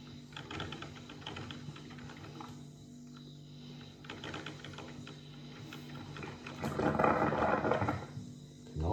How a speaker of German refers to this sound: Im Hintergrund hört ihr auch den Kater.